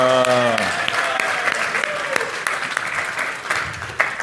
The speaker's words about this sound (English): All right, round of applause for Ezra.